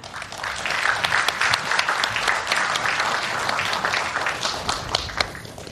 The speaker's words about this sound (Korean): 잠시 후에 저희가 듣도록 하고 1TV와 동시에 72주년 국군의 날 기념식 잠시 중계를 듣도록 하겠습니다. 16보병사단, 해군 잠수함사령부, 공군 군수사령부에게도 힘찬 박수 부탁드립니다.